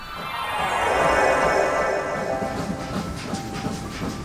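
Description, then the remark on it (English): A train rumbles steadily along the tracks through a city at night, a broad continuous roar with hissing high tones and faint rhythmic clatter, loud, with no voices. “It's night where we've arrived, and we're in a city rolling down the tracks while everyone sleeps well, not everyone.”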